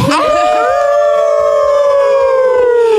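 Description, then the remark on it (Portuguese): Loud human voices imitate a wolf howl: one long sustained wail rising at the start, then holding steady and slowly sinking for about three seconds. “Merecemos um uivo para isso.”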